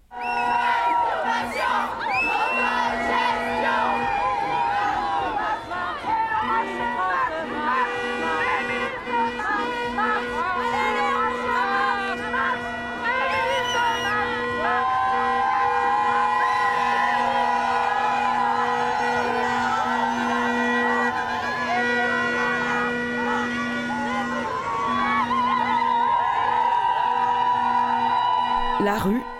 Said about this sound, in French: On écoute un extrait qu'on a choisi, hommage et petit déclat d'amour aux chants et slogans de lutte.